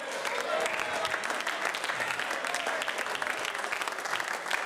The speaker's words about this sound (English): Clapping of hands is just wonderful.